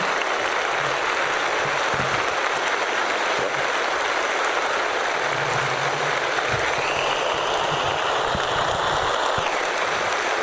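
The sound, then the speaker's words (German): A studio audience in Wiesbaden applauds continuously before the host has done anything, a dense, steady wash of clapping that holds at an even level for the whole stretch without pauses or voices. “Das Publikum spendet viel Applaus, obwohl der Moderator noch gar nichts getan hat.”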